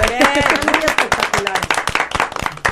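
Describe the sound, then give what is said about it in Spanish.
A short burst of applause from a small group in the W Radio 96.9 studio during a Gay Pride conversation, with quick, uneven claps filling the whole stretch, while voices speak over the clapping. “¿Saben qué? Aplauso para todos.”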